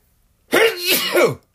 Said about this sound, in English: Excuse me, I have to sneeze on that one.